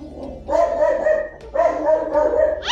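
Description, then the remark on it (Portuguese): A dog barks twice in quick succession, each bark drawn out, somewhat whiny and loud, with a brief pause between them. “Galera, o cachorro latiu logo na hora que ele falou que o cachorro controlava tudo no jogo.”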